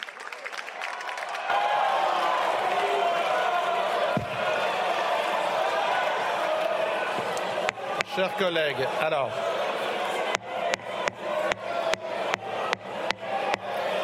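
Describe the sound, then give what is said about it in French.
Many lawmakers in a parliament erupt in loud, sustained uproar, shouting at once in French, followed by a run of sharp repeated bangs near the end, with one voice briefly speaking over the din. “Chers collègues, ne hurlez pas. J'ai entendu. Ne hurlez pas. Je suspends deux minutes.”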